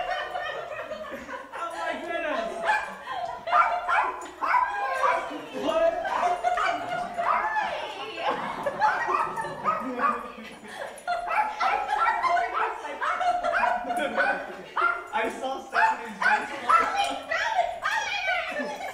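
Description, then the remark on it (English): A family dog yips, barks and whimpers in quick, high-pitched bursts as a family member arrives as a surprise, tangled with excited overlapping voices, a child's speech and some laughter, all fairly loud and continuous. “So our dog was just as surprised as anyone else.”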